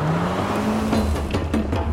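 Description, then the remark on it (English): A car engine revs up and accelerates as the driver presses down on the gas pedal, its low drone climbing steadily in pitch under a rush of road noise. Loud, it runs continuously with no voices. “Desi sank his foot into the gas pedal.”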